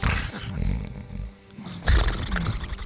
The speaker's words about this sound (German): Jetzt habe ich mir beim Schnarchen übel verschluckt.